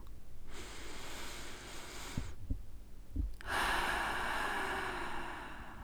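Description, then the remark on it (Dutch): Slow, deep breaths: a long airy inhale, a pause, then a long exhale, with a softer breath between them. Calm and unhurried, with no talking. “Dit zijn rustige, diepe ademhalingen.”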